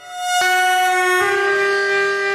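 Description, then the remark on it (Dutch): A loud, sustained train horn blares continuously for a couple of seconds at half past three at night near Voorschoten station, between The Hague and Leiden in the Netherlands, its harmonic tone shifting partway through, with no talking over it. “Weer een heel hard getoeter en weer nog veel meer schudden in ons bed.”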